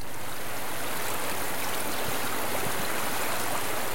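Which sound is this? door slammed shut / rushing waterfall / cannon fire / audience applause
rushing waterfall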